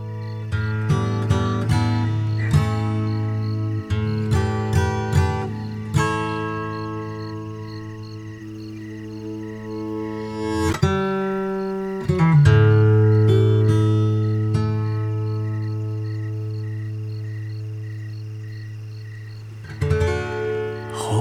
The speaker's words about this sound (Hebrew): לסיום, זה השיר שסוגר את האלבום.